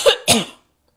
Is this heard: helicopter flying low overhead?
no